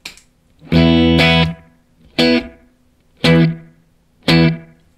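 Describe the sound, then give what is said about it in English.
Electric guitar chords played through an AD999 bucket brigade slapback delay set to several repeats, four loud strummed bursts with quick echoing repeats that sound slightly thin and smeared, clear with no talking. “I'm doing a bunch of repeats too. And as you can hear, it becomes more spread and thin.”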